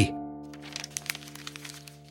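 A short burst of dry crackling and crinkling as a folded paper, an old silk manuscript, is opened out, with several sharp little snaps clustered together over a low steady hum.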